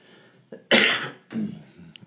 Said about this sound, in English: Even me trying to do a podcast while I'm coughing. I'm sorry, guys. I'm really trying. Anyway, um, I'm going to wrap this up before I start coughing more.